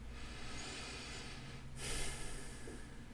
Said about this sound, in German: So, hm, okay, mal tief schnaufen.